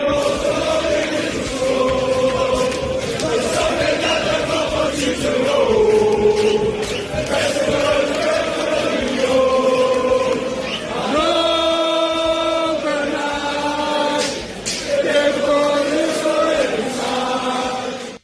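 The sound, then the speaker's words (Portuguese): A large crowd of Atlético de Madrid football supporters chants in unison, many voices holding long sung notes that rise and shift in pitch, loud and continuous from start to finish. “eu cometi o erro de não trazer a letra da torcida do livro”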